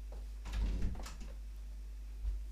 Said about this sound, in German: Und Typ, jetzt habe ich Angst, ich mach mal eben Tür zu hier.